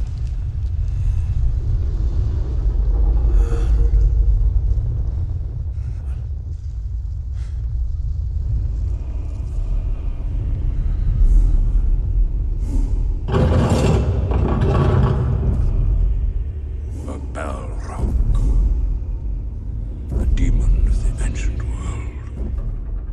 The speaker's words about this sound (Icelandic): Hér heyrast drunurnar í balráknum eða balróknum fyrir eftir í hvernú spyrð þegar förunitið mætir skeppnunni í Moria. Þetta er auðvitað úr kvikmynd Píters Jacksons